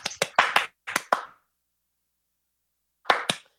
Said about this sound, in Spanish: Aplausos.